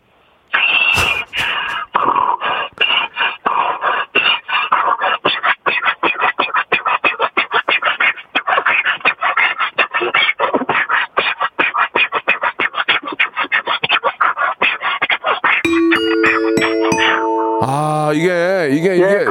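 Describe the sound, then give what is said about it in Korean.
A man's voice imitates a car engine starting, a long run of rapid sputtering, cranking bursts that catch and build into a steady revving hum, loud. “아, 지금 이제 경기도 좀 좋아지고 모두 다 엔진에 좀 불을 달고 힘차게 한번 달리라는 의미에서 한번 다시 한번 시동 한번 걸어보겠습니다.”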